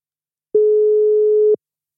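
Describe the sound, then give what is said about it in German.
A single steady telephone ring tone, a flat mid-pitched electronic beep lasting about a second, clean and fairly loud with silence before and after and no voices. “Es klingelt schon mal.”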